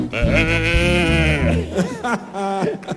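A loud bleating bellow like a sheep or goat, one long quavering cry followed by a few shorter wavering bleats, with nothing else around it.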